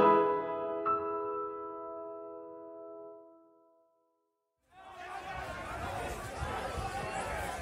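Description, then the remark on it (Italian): A bright sustained tone rings out and fades into a short silence, then a dense, busy crowd at the Vucciria street market in Palermo, Italy bursts in, with overlapping vendors' shouts and calls filling the space. “Forte quanto gli urli e i richiami al mercato della vucciria, così intensi e particolari che non puoi fare a meno di sentirli anche quando guardi quel quadro iconico, inconfondibile,”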